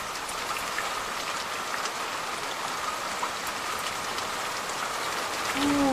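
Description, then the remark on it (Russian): Steady rain pours down onto a wet street in Taipei, Taiwan, on a cold March day with puddles all around, a dense, even hiss of drops, with a passing car's rising tone swelling in near the very end. “один дождь, все мокро, лужи кругом, машины проезжают, разливают на тебя воду.”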